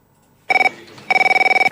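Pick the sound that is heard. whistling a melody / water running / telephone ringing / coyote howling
telephone ringing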